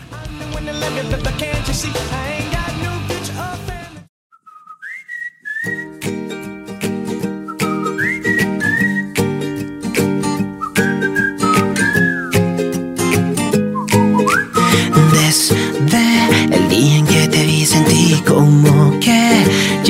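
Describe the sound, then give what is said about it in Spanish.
A Spanish-language pop song released in 2013 opens with a bright whistled melody over full band backing, after a short drop to near silence in the first few seconds. The music stays loud and steady throughout. “a continuación les presentamos la primera canción que se estrenó en el 2013 esta es del álbum …”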